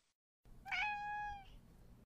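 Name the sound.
cat meowing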